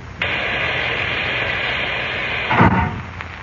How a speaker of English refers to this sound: But when I press this white button on the panel, compressed air forces the water out of the chamber and closes the outer door at the same time. I see. Listen.